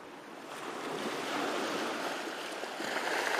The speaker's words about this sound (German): Ich hätte, ich wünsche mir Stille und da ein bisschen Meeresrauschen.